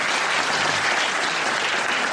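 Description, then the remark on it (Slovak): Steady audience applause for the sound engineer, a dense, continuous wash of many hands clapping at an even loudness for the full couple of seconds, with no voices standing out. “poprosím potlesk na našom našom zvukára”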